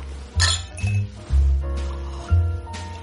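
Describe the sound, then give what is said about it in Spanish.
Glasses clinking together in a toast, about four bright, ringing clinks at uneven intervals over a steady low hum, with no one speaking. “Brindo por eso.”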